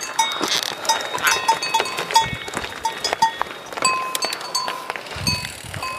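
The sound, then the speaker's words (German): Bulls grazing in a pasture, their bells clanking and chiming irregularly from several directions at once, a busy overlapping jangle throughout. “Wir passieren jetzt hier die Bullen nämlich.”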